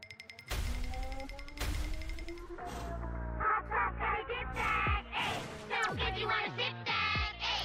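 A dinosaur voice-effect version of a pop song plays loud, its vocals heavily warped into deep, growling monster-like tones, with punchy chopped phrases over a thick, steady backing beat and no talking.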